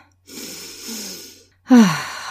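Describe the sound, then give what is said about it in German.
A slow, deep, relaxed breath drawn in for over a second, soft, followed after a short pause by a louder, partly voiced exhale like a sigh. “Also atmen wir einmal ganz entspannt ein”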